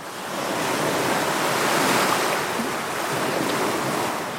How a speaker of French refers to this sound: Elle contemple la mer écumante, secouée de rage, toute gonflée de fiel et soulevée de bave.